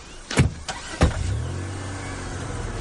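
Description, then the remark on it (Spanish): A family gets into a car after a pest fumigation visit: a few sharp thuds of car doors shutting in quick succession, then the car engine starts and settles into a steady low idle. No one speaks. “La familia se sube al coche.”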